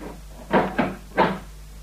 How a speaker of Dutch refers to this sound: Dit moet het dan zijn, meneer Nog een keer sleuteltje omdraaien.